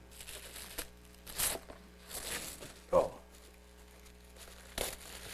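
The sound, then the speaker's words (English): Wrapping paper being torn off a gift, a Roku box, in several irregular bursts of ripping and crinkling, fairly loud against a quiet background, with a voice briefly exclaiming partway through. “We'll open it and see. I don't really hear anything in here, but your, your gift is in here. I, I wrapped this up myself, so I think I did.”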